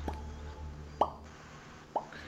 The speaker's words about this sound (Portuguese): Você escuta um gotejar, né? Aquele.